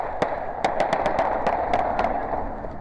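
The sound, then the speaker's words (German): A rapid, irregular volley of about ten sharp gunshots, fired by police at a thief's car speeding toward their roadblock and recorded on a police bodycam, cracks out over a steady rushing background noise, each shot loud, with no voices heard. “Der Dieb versucht, die Sperre zu durchbrechen, steuert auf die Polizisten mit hoher Geschwindigkeit zu. Schüsse fallen.”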